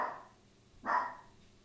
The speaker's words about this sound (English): Even my dog is barking in the background here, telling me to wake up.